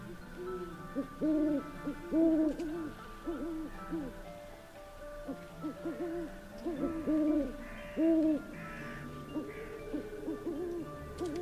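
A snow-white owl perched on the pointed roof of a castle at nightfall hoots repeatedly in short, mid-pitched bursts, grouped into rhythmic series with brief pauses between them, clear and steady with no talking.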